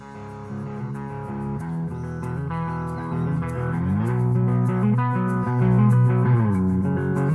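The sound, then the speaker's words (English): A recorded song plays on its own, with a steady, sustained band texture of harmonic instruments and distorted tones that grows slightly louder and fuller partway through, no talking over it. “All right, before we uh, move on to our topic, uh, let's let's hear another song off of our uh, featured artist of the month, January.”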